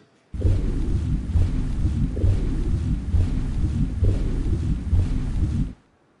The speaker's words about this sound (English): So, you know, creativity and technology put together in order to create the illusion that we're inside the submarine.